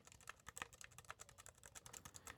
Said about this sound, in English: I'm going to put it to sleep for a moment because I just want to give you an idea of the keys. The six dot Perkins keyboard sounds like this